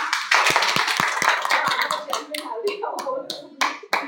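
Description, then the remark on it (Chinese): An audience breaks into applause, a dense patter of hand claps mixed with murmuring voices, thinning out toward the end into a few louder, scattered claps. “班长，掌声。”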